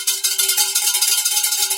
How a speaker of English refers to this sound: Whoa, you get the winner's bell.